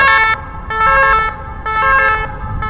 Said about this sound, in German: das ist ein Krankenwagen, das ist quasi normal. Die klingen nur ein bisschen jetzt martialisch.